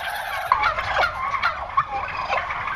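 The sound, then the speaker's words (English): A crowd of turkeys at a turkey ranch in Sonora, California, gobbles continuously, with overlapping warbling calls from many birds and a few sharper gobbles rising out of the steady flock noise. “Well, it's not the best news for the turkeys.”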